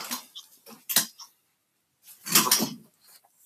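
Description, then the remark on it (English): A door being closed: a few quick rattling knocks, a short pause, then a louder, longer clattering thud as it shuts. No one speaks. “I just have to close the door because the dog's out.”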